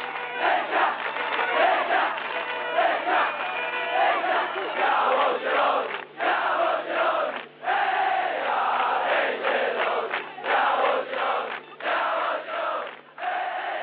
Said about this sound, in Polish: Stadion we Wrzeszczu wita swoją drużynę po meczu w Turynie.